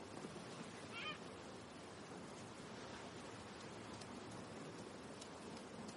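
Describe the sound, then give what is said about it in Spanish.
A single short cry of a seagull landing beside a man lying against a rock rings out near the start, then fades into a steady, dense hiss of rain or surf that continues throughout with no voices. “Una gaviota se posa junto a él y queda a su lado,”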